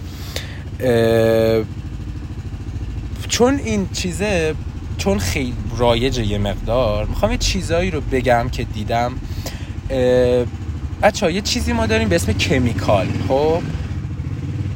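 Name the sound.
motorcycle engine running nearby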